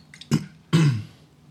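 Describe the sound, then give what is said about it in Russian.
A man coughs twice, a short sharp cough followed by a longer, rougher throat-clearing cough that trails off into quiet. “да ты заебал, тебе слово дали наконец, ты сидишь кашляешь.”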